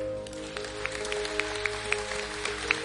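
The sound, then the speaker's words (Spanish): An audience applauds the Lord, a dense, steady wash of clapping with a few sharper individual claps standing out, over a constant low electrical hum. No one speaks. “Aplaudamos al Señor.”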